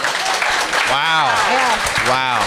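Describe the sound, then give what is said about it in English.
An audience claps steadily throughout, a dense, continuous wash of applause with a few voices whooping and cheering over it, applauding to show who can watch a VHS tape. “who, by applause, who here has who can who can actually watch a VHS tape?”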